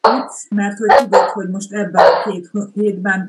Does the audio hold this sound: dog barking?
yes